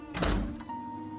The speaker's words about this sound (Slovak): Kde si v dome, sa zatresnú dvere. Babka cíti, ako jej z ruky vyklezla kľúčka vchodových dverí.